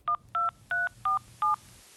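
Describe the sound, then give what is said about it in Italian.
Five quick touch-tone beeps from a telephone keypad as a number is dialed to make a call, each a short two-note chirp at a steady, slightly uneven pace, clear over a faint low background hum. “Eh, io un giorno faccio una telefonata con mio figlio, gli dico passami la mamma, me la passa”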